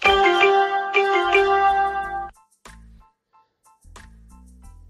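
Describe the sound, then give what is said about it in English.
A phone notification alert plays a bright, melodic electronic chime for about two seconds, loud, followed by a few soft clicks and low thumps with no one talking. “Should have turned off my notifications. I don't know if y'all heard that, but anyway.”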